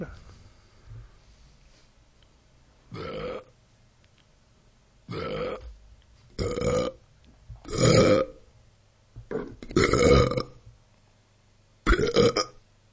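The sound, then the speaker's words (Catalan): A series of six loud burps of varying length, played from a playlist, spaced a second or two apart, each a deep, rumbling belch with no talking in between. “Però res, he fet un, un petit, un petit eh, homenatge? homenatge al Rot, que en altres cultures està tan ben vist, no?”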